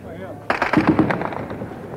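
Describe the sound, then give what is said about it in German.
A sudden burst of rapid gunfire breaks out after a quiet start, several sharp shots in quick succession echoing over a murky, rumbling background, with talk faintly present; a heavy exchange of gunfire at Potsdamer Platz in Berlin on 17 June. “Beginnt soeben wieder ein heftiger Schusswechsel.”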